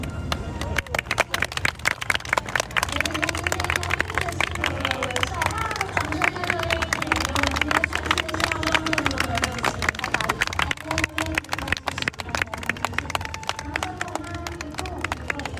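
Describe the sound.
Steady audience applause, many hands clapping in a dense, continuous patter for about fifteen seconds, mixed with crowd chatter and raised voices underneath.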